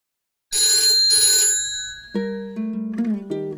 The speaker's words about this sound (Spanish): Era de los últimos teléfonos públicos que quedaban en Santiago sonaba todos los días a las 10 de la noche y nadie se atrevía a contestarlo.